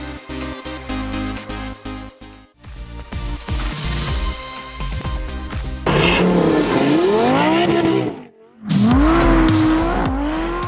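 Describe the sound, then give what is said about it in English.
A Lamborghini supercar engine, the brand's first all-wheel-drive model made for off-road driving, revs hard, its roar sweeping up and down in pitch through repeated throttle blips, with a brief drop out before it surges again, no one talking. “And you cannot mistake that engine sound, but what you're seeing might surprise you.”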